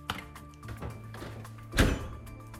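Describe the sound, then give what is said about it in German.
A dishwasher door shuts with a single solid thunk near the end, after a faint click at the start, over a steady low appliance hum. No one speaks. “Bevor ich ins Büro gehe, mache ich noch die Spülmaschine fertig.”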